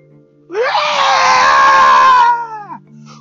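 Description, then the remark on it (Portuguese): A person at the open door of a pigsty lets out one loud, sustained scream lasting about two seconds. It starts abruptly, holds strong, then trails off with a falling pitch. No talking is heard around it. “Aí eu cheguei, eu fui, pulei o chiqueiro, entrei de onde estavam os porcos dormindo, abri a porta do chiqueiro e cheguei e deu um grito.”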